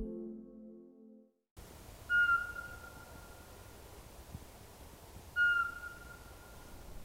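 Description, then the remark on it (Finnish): A male Eurasian pygmy owl gives two clear, evenly spaced whistled notes a few seconds apart from a yard before 5 a.m. in early April, in darkness against a quiet, hissy background, after a brief low tonal sound fades out at the start. “Pihalta kuuluu rytmikäs, kaunis vihellys. Se toistuu satoja kertoja täydellisessä hiljaisuudessa. Mitä muita ääniä ei kuulu. Äänessä on Euroopan pienin pöllö”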